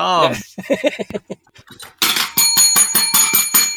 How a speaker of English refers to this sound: now you're hitting the bell, and I now actually have to edit in the bell. That makes it very difficult for me.